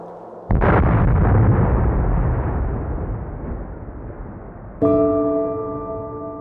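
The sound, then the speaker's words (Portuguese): An atomic bomb explosion, like those dropped by the United States on Hiroshima and Nagasaki in August: a massive blast erupts suddenly, followed by a deep, sustained rumbling roar that slowly fades; near the end a second burst hits and a steady, ringing tonal drone rises over the noise. “Estima-se que entre 150 mil a 250 mil pessoas morreram com as explosões entre os dias 6 e 9 de agosto.”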